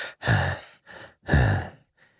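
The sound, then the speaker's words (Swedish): A voice imitates the heavy panting of a silent phone caller: two loud, rasping breaths, each followed by a softer, shorter breath, in an uneven rhythm with no talking. “Och så var det bara tyst och så hörde man någon som flåsade.”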